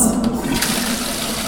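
toilet flushing

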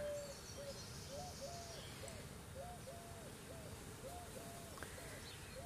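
birds singing

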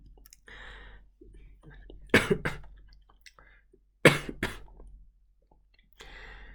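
coughing

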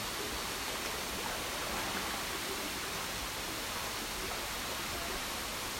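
waterfall rushing water

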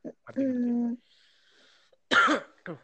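coughing

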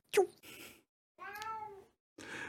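cat meowing

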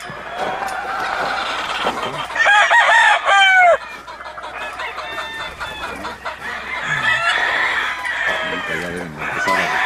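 hen clucking

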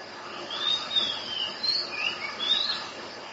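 birds chirping

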